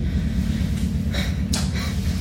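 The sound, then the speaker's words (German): A motorcycle engine rumbles loudly as it drives away directly outside a window, a deep, steady growl with a couple of brief breathy bursts on top, and no one speaking. “ja, wenn ihr euch jetzt wundert, was hier gerade über uns hereinbricht, das ist ein Motorrad, was direkt vor dem Fenster entfernt wird und äh, damit ist dann auch wieder Ruhe.”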